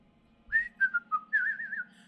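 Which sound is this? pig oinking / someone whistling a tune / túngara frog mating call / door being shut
someone whistling a tune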